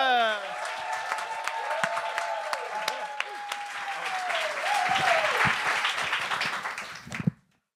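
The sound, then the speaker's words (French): A comedy show audience applauds loudly and steadily for the evening's first comedian, with dense clapping and cheers, plus a sustained whistle-like tone gliding through the middle; the ovation holds for about seven seconds, then cuts off abruptly. “Oui, faites un maximum de bruit pour celui qui vient casser la glace”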